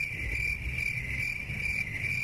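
Crickets chirp in a steady, continuous high trill, like a quiet night ambience, with a faint low rumble beneath and no voices.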